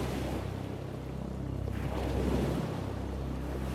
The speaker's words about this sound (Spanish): Si no fuera por la luz del barco y nuestras lámparas, estaríamos prácticamente navegando en una oscuridad casi total. Solo se escuchaban el ruido de las olas al moverse por la superficie y chocar contra el casco del barco.